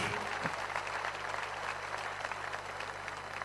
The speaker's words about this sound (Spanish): Fuerte el aplauso para los periodistas, difusores, para todos ellos.